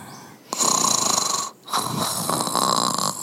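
A sleeping koala gives two long, rasping snores, one after another with a short pause of silence between them. They are steady and fairly loud, with a buzzing, whistly tone and no talking.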